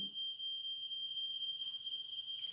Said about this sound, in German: Äh, jetzt geht der Feueralarm bei mir los. Ah, entspannt. Ja, das ist, wenn du nach dem Duschen die Tür auflässt, dann dann äh, zieht der, der heiße Wasserdampf da hoch und dann geht die Feuerwehr da los. Aber er funktioniert.